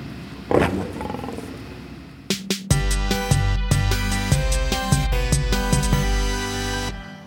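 A male lion, the leader of the pride, gives one deep, rumbling roar near the start. A loud, sustained tonal passage with stepping pitches, like a musical sting, follows and fills the rest. No one speaks.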